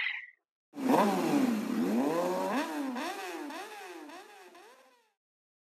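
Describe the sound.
A voice imitates a mobile phone's beeping ringtone, a buzzing, nasal 'neng neng' like a revving motorbike engine that swoops up and down in pitch several times for about four seconds, loud, with no talking.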